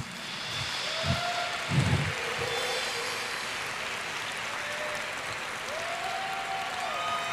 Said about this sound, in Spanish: Apláudele fuerte a Jesús.